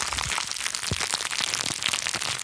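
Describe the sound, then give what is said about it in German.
Plastic wrappers of gummy bear fortune cookies crackle and rustle continuously on a table, a dense run of small sharp crinkles with a few louder snaps, and no voices. “Hier liegt nämlich was auf unserem Tisch. Es knistert.”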